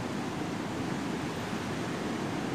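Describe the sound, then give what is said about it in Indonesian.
Steady, broad rush of ocean surf at Sawarna Beach in Banten, recorded at the shore, a continuous hissing roar with no distinct breaking wave or pause, fairly loud, with no voices. “Gua biasanya rekaman di kamar gua di rumah gua, tapi untuk episode kali ini gue rekaman di pinggir pantai tepatnya sekarang tanggal 24 Oktober tang hari Sabtu gue dan teman-teman gue ke Pantai Sawarna Banten”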